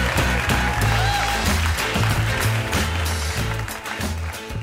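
Studio audience applause, a steady loud wash of clapping that holds for several seconds while a band plays a bouncy bass-heavy tune underneath, fading slightly at the end.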